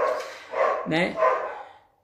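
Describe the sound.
A neighbour's small dog yaps a few times in quick succession while a person speaks briefly over the barking.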